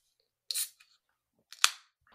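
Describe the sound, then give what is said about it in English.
Two cans of Deep Ellum IPA from Deep Ellum Brewing crack open one after another, each a sharp metallic snap followed by a short bright hiss of escaping fizz, with a faint click or two between them and no talking. “Have you already cracked yours? No. Let's hear it.”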